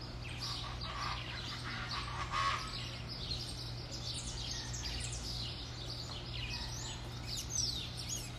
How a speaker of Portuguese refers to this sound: Vocês vão ouvir uns pássaros cantando aí, uns patos, sei lá. Eu. É 6 horas da manhã, cara, e eu tô aqui na cidade de Bonito